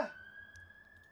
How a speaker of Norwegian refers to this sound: Kan disse sirenene slutte?